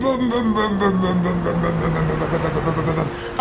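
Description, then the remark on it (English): A voice mimics a revving car engine, a continuous buzzing vroom that slowly drops in pitch for about three seconds, ending with a brief sharp burst. “a car and I'm going down the street. Vroom, vroom, vroom, vroom, vroom, vroom, vroom, vroom.”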